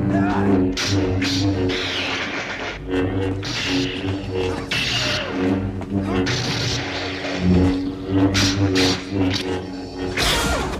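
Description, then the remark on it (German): A tense Star Wars film scene of Vader fighting Luke in Cloud City, with irregular metallic footsteps clanking on metal plates under a dense, droning soundtrack and occasional muffled voices, with sharp bright impacts scattered throughout. “Mich haben diese Schritte irritiert, weil in Episode 1 laufen die ja auch auf diesen, wie nennt man das, diesen Blechen rum.”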